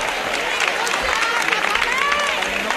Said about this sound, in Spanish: Mira el aplauso porque hace cuatro años que no sale la cruz de guía del cachorro